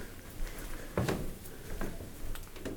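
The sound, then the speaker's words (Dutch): A door handle is tried on a locked door, giving a sharp metallic clunk and rattle, followed by a couple of softer jiggles, with no talking. “Ja, ook deze deur is weer afgesloten.”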